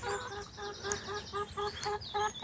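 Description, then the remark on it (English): Several chickens from a small kept flock of eight cluck in a steady, repeated rhythm of short harmonic calls, moderately loud, with a faint background hum and no talking. “The chickens are tremendous animals to keep.”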